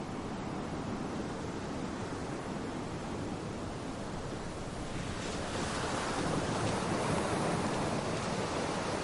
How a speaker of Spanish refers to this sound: El oleaje le moja los pies.